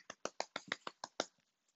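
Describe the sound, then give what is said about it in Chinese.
Hands clapping: about eight sharp, bright claps in a quick, steady rhythm, fairly loud, then a couple of faint trailing claps as it dies away. No one speaks. “哇，这个时候传来好多的拍手声。”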